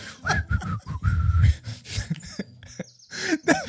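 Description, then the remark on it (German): A person whistles a few short, high chirping notes, as if calling to a bird, mixed with breathy vocal noises and throat sounds, moderately loud. “Du bist gerade in einem Disney-Movie und als no. nächstes pfeifst du und sprichst mit dem Vogel.”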